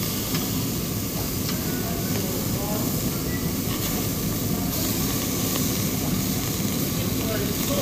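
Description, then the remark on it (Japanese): Meat, including kalbi, horumon offal and tongue, sizzles steadily on a yakiniku restaurant grill, a continuous dense crackling hiss with fine pops that holds at an even, fairly loud level throughout. “ちょっといろんなものホルモンとかねタンカルビとか花火全部入れていこうと思います聞こえますかねこの音うわーめっちゃうまそう”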